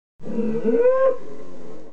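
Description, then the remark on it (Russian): A loud bellow from a huge, enraged bull released into an arena: one sustained, rough-throated call that rises in pitch partway through, then holds steady for nearly two seconds before cutting off, with no voices. “И когда в следующий раз пришло время такого организованного досуга, на арену выпустили огромного разъяренного быка”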